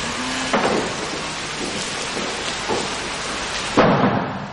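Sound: heavy rain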